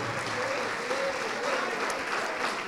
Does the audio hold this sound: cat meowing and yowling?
no